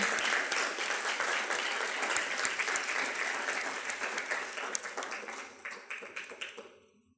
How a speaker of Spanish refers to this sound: Dale un aplauso a Jesús, fuerte. Él se lo merece.